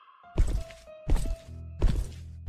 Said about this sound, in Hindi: जैसे उसके घर में कोई चल रहा हो बार बार कोई इसके दरवाजे पर नॉक करता और जब दरवाजा ना खुलता तो वो उस कमरे के आसपास चक्कर लगाने लगता